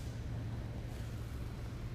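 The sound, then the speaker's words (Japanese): Steady outdoor pond water ambience, a continuous wash of soft noise with a low, droning hum underneath, even in loudness throughout and with no one speaking. “今撮っている場所はいろいろな音で溢れています聞こえますかまず池の音えてる音や隣の建物の寮から流れてくるラジオの音やなんだろう工房からテープの音”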